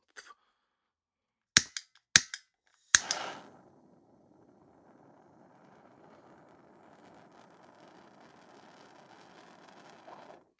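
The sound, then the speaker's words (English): A propane torch lighter is used to light a joint. It clicks sharply five or six times in quick succession, then catches and settles into a steady, soft hissing roar of flame that continues for several seconds, with no talking. “Let me go ahead and get the L lit, you know, make sure we good. Fucking propane.”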